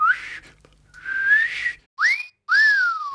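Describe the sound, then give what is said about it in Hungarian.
A person whistles four short tonal notes to trigger a key finder, some rising and sliding, the first two steadier and the last two quick upward swoops, clear with no talking. “És nagyapámnak egy olyan cucca volt, hogy így füttyentett, hogy így”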